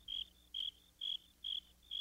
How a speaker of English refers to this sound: What did you say? asked the cricket. You want more music? I will find a friend. Soon there were two crickets chirping.